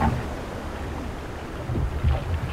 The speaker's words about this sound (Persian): ملوان نفس عمیقی کشید و شروع به پارو زدن کرد